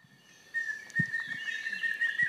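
A single individual bird, recorded in southern Mexico, sings a high, steady whistled note with fluttering upper trills over about two seconds, fairly clear against a faint background, with a few soft low thumps underneath.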